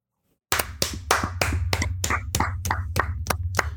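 Steady applause breaks out after a moment of silence, with sharp, evenly spaced claps standing out over a low, continuous hum, at a moderate level throughout.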